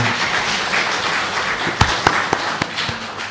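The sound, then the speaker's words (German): An audience applauds steadily, a dense wash of many hands clapping at once, with a few sharper claps standing out toward the end. No one speaks. “muss ich zusammen Applaus geben.”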